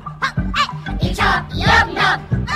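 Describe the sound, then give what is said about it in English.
A chicken clucks in a quick series of loud squawking bursts, about half a dozen in rapid succession with no one talking. “Oh, oh, chicken.”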